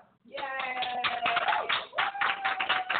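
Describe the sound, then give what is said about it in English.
Quick, continuous clapping breaks out after a brief silence and keeps going at a steady rapid pace, with voices cheering and calling out over the applause, celebrating the five-year anniversary of Before the Garden. “Clap online, get your clap.”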